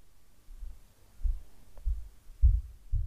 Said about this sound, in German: Spür dem Herzschlag nach, den du in deinem ganzen Körper spüren kannst.